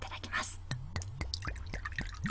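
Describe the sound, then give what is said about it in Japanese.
Prize-winning Kusudama sake pours from a bottle into a cup before a toast, with a steady run of about seven gurgling glugs, each a quick splashy pulse, after a brief soft hiss at the start. “じゃあ、まずちょっと乾杯してからお酒のことも詳しく伺いたいなと思いますが、では、継がせて”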